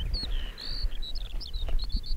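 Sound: skylark singing high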